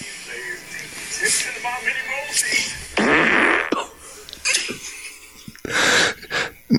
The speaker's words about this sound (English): this is this is cartoon level sounding farts here. Yeah, yeah. Uh, she held that in for a minute and let it go, and it was right up. Uh, the audio was right up by the uh, the area, if you will.